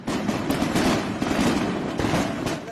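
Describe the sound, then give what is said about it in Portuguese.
Dense, continuous crackling and popping of fireworks exploding during New Year's Eve celebrations in Rome, Italy, a loud rapid barrage of bangs with no pauses, like a long string of firecrackers going off. No one speaks. “uma veterinária teve que passar a noite da virada tentando acalmar as aves enquanto os rojões explodiam”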